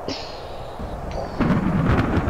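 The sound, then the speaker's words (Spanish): A thunderstorm roars with a steady wash of rain-like hiss and a thin, whistling wind tone, then a deep rolling rumble of thunder swells and grows louder in the second half. “Sus voces eran ahogadas por el rugido de la tempestad.”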